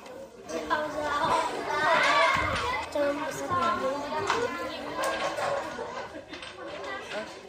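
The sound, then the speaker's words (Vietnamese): Lively chatter of many village children playing together at the Dương Liễu book library in Dương Liễu commune, Hoài Đức district, Hanoi, on a weekend, with high-pitched voices overlapping, bursts of laughter and shouts rising and falling continuously at a fairly loud level. “Những ngày cuối tuần, Thư viện sách Dương Liễu ở xã Dương Liễu, huyện Hoài Đức, Hà Nội lại rộn ràng tiếng cười đùa vui vẻ của những đứa trẻ làng quê lùi tới đây đọc và mượn sách.”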